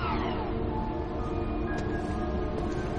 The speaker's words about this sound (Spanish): El ascensor interior de la pirámide sube.